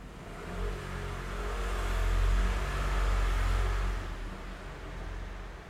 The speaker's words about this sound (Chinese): 大家应该觉得很荒谬，想说一堆摩托车经过的声音，但听说小孩很喜欢白噪音